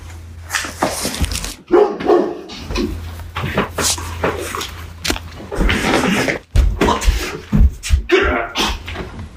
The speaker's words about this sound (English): That was Ron barking because he saw your dog, Tequila, and he's never seen a strange dog in his house before in his life.